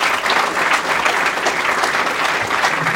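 A live-show audience gives the evening's MC a round of applause, clapping steadily for about three seconds, a dense, even wash of many hands with no pauses and a few faint cheers mixed in.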